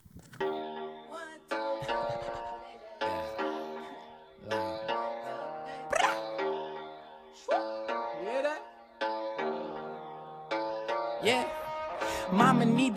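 A music track plays during a short musical break in a studio radio show, at steady volume, with rich sustained melodic notes and sliding pitches in regular phrases roughly every second and a half, driven by a low rhythmic pulse.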